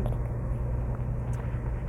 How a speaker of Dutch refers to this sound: Dus uh, vandaar eh, even wat podcastopnames in de auto.